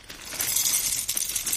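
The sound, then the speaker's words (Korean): Round, hard dry dog kibble, lunch for the dog Sunja, pours into a bowl in a steady, crisp rattle of hard little pellets, a dense clattering rush that keeps going for a moment before stopping. No one speaks. “요들 이제, 어, 콩이나 팥을 쏟을 때랑 비슷할 기다.”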